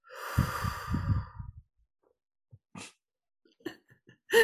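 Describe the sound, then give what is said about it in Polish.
A person takes a deep, heavy breath in and out, loud, released in a long sighing rush of air, then near silence broken by a few faint clicks and rustles. “Take a deep breath in and a deep breath out.”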